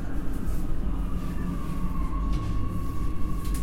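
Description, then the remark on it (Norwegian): A train rumbles steadily as it slows to a stop at a station, with a thin, sustained brake squeal whining over the deep, continuous rolling noise. Nobody speaks. “Da bremser vi ned.”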